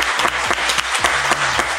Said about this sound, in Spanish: Les damos un aplauso con mucho cariño.